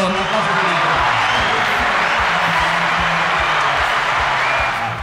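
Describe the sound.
Steady, dense applause fills the whole stretch at an even, loud level, with a low rhythmic thumping underneath and a murmur of voices mixed in.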